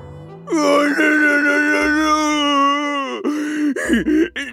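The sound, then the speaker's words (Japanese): A black bear character lets out a long, loud wailing cry inside a stopped elevator, holding a steady tone for a few seconds before wavering and breaking into shorter sobbing moans at the end. No words are spoken. “黒熊はエレベーターの中で泣いたまま出てきませんでした。”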